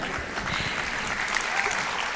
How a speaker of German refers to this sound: Wofür ist der Applaus jetzt? Na, weil du das gewusst hast, dass es das Bild ist.